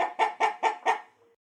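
A chicken clucks five times in quick, evenly spaced bursts, clear, with the final cluck trailing off into a faint tail. No one speaks.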